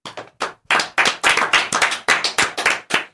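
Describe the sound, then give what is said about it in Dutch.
Steady rhythmic hand clapping, about a dozen sharp, bright claps in quick succession at a fairly even pace, loud and with no voices over them, as applause for someone who ran the Rotterdam marathon. “Ja, ik wil even applaus.”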